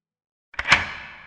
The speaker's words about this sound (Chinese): 老旧生锈红色的铁门映入眼帘，上面还有小时候我用美工刀刻出来的笑脸，好像只有这里，时间被冻结住了。我从口袋掏出那把我不再熟悉的钥匙，抱着侥幸的心情尝试开了门。